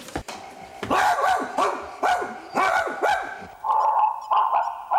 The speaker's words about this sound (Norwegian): Etter den kula her så må du nesten sjekke bikkja. altså. Det høres ganske forkjøla ut.